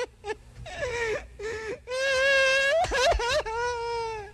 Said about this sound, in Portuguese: Bota o, bicho, o bebezinho chorando, ele chorando. Só volta a chorar, bicho.